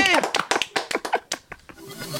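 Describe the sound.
Brief, scattered applause from a small group in a radio studio, a dozen or so uneven claps, with laughter and voices mixed in before it fades.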